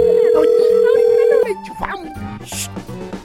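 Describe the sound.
A loud, steady telephone tone holds for about a second and a half as a call is placed to a woman who sells juices, then cuts off as people begin talking over faint background sounds.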